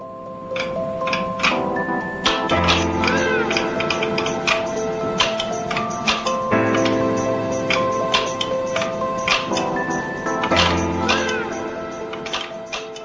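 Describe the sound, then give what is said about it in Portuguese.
Irregular bursts of sharp mechanical clicking from the rustic controls of Willy's Tennis for Two, a tennis game recreated on a simple oscilloscope, ring out fairly loud over a steady layer of electronic hum and tones. “Esse som que você está ouvindo é o som que faziam os controles do jogo de Willy.”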